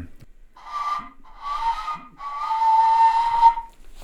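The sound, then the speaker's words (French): A prehistoric bone flute made of hollow bone with no mouthpiece plays three airy phrases, the first two short and the last a longer sustained note, each with a soft hiss of breath; no one speaks. “Et on produit le son d'une façon assez difficile à faire.”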